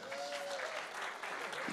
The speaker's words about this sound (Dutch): Ja, this is a pastor from Rio de Janeiro. Laten we een applaus geven, ja.